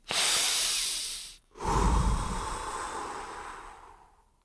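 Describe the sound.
Two loud, exaggerated breaths as a man demonstrates breathing: a forceful airy exhale, a brief pause, then a longer, heavier breath that slowly fades. No talking.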